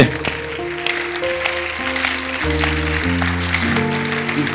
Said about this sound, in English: you don't pay taxes on clapping, it's free. It's free. Be, be happy and clap.